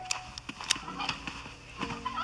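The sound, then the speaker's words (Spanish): A turkey gobbles in quick, rattling bursts, with short throaty calls repeating over a couple of seconds and no talking. “¿Este es el pavo?”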